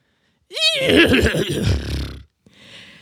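A horse whinnies loudly, a high quavering squeal sliding into a rough, shuddering nicker, followed after a short pause by a softer breathy snort.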